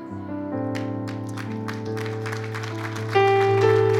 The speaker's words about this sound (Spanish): Dale ese aplauso bien fuerte al Señor porque solamente Dios puede marcar un antes y un después en tu vida, nadie más puede hacerlo.